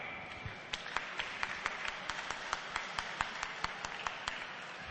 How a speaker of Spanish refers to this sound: Un aplauso para su niña Paula.